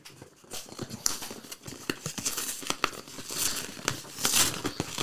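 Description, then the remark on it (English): Crinkling packaging being unwrapped, a continuous crackly rustle with sharp bursts of crunching and tearing throughout, fairly loud and with no voices. “Listen to all that crunchy. Yeah, that's crunch.”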